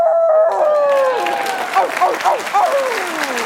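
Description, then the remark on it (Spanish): Frances McDormand lets out a long, gliding wolf-like howl, loud, on the Oscars stage as Nomadland wins on 25 April, then a large audience bursts into applause and cheering with scattered whoops and howls answering back. “Y este aullido de Francis McDormand eh, en el escenario de los Oscars sellaba una victoria rotunda para Nomadland en los Oscars del pasado 25 de abril,”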